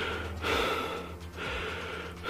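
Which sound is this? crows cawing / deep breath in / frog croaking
deep breath in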